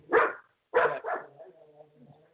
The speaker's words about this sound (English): I don't know how much dog noise is coming in